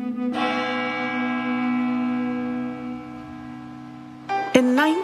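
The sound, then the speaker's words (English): A village church bell tolls once to give notice of a death, its deep, rich tone ringing loudly and humming steadily for about four seconds before a shifting, wavering sound cuts in at the end. “She remembers that church bell would ring every day, that there's a certain bell for a notice for the death.”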